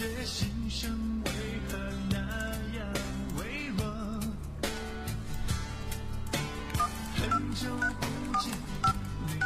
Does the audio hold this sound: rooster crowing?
no